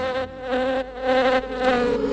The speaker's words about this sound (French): attention, il y a la guêpe.